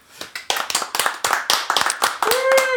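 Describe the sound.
Audience applause: a burst of many hands clapping in quick, uneven strokes, fairly loud, with a whoop and cheering voices rising toward the end.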